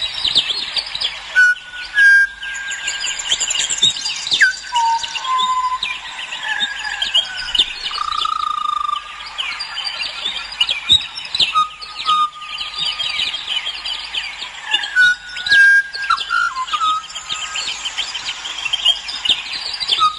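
A garden bird that begins each day with a theme and varies on it sings a long, varied song of clear whistles, trills and chirps, phrases repeating and changing continuously, fairly loud over faint background chatter of other birds.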